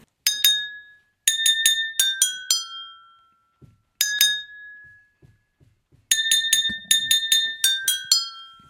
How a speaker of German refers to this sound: Es war sehr schön, dich konzentriert die Gläser beklöppeln zu sehen.